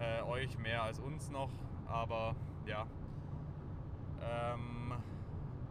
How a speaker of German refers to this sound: Ähm, aber wir nehmen trotzdem lieber ohne Auto auf, weil ihr hört es ja selber, das rauscht im Hintergrund und nervt wahrscheinlich